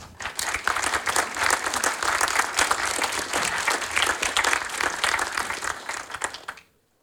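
A crowd of people breaks into steady applause for a speaker taking the floor at the start of a programme, dense clapping that holds strong for several seconds before quickly dying away, with no one speaking over it.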